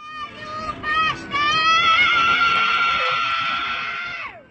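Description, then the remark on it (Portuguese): A long, high-pitched scream rises and holds for several seconds before trailing off, set against faint background chatter and street noise. “Um de vocês dois aí tem alguém gritando no fundo.”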